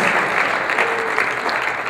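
An audience applauds, a steady dense wash of many hands clapping at even loudness for the whole stretch, with no voices rising above it.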